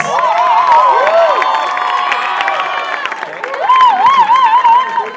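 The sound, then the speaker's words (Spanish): A loud, sustained crowd roar of applause and cheering as a performer is introduced, with rising and falling whoops and whistles cutting through the dense clapping for the whole stretch. “Vamos, con un fuerte aplauso, grito loco, con ustedes, aquí”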